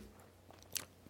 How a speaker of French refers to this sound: si vous entendez du bruit, si jamais, c'est mon chien et je ne sais pas ce qu'il fait. Ah, il mange, il mange du papier à poncer.